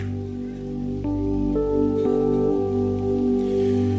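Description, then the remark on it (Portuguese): A steady hiss of falling rain runs beneath loud, sustained keyboard chords that change every half second or so, with no voices. It is a church worship gathering, with the audience out in the rain. “Eu louvo ao Senhor por esse povo que está aqui debaixo de chuva, depois de um dia atribulado de trabalho”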